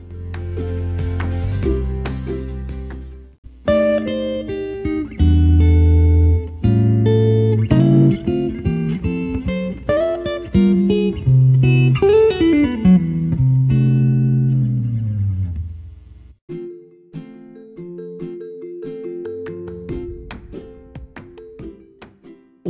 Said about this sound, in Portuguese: Sem mais delongas, toca a vinheta e vamos lá!